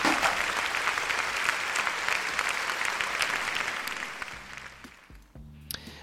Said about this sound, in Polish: No i zdaje się, że właśnie w tym miejscu e, należą Wam się brawa, bo padł rekord ilości słuchaczy na żywo. Bardzo, brawo, takie małe brawa. No to jeszcze nie za tylu słuchaczy, żeby były takie porządne brawa, takie małe brawa.